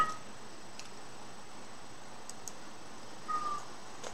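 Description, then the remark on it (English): A single short, faint meow from a cat near the end, set against a steady low hiss of room noise with a few soft ticks; no one speaks. “Man these cats.”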